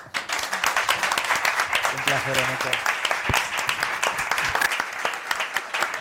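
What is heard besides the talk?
audience applause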